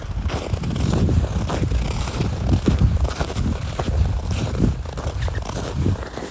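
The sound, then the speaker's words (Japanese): Steady footsteps crunch through snow on a riverbed in Sapporo on a clear morning, at an even walking pace, each step a gritty crunch, with a faint wind rumble in the background and no voices. “ではまた河川敷に降りてきたのでちょっと雪をとね”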